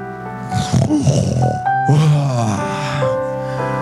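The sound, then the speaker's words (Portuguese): A man imitates snoring with two drawn-out, rasping breaths, loud, over a steady sustained musical tone in the background. “Quando chega lá, tem um cara dormindo, roncando.”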